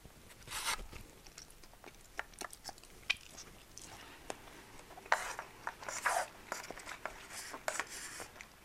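Crunchy chewing and eating sounds of someone eating lunch, with irregular bites and soft rustling scattered throughout at a quiet level. No one speaks.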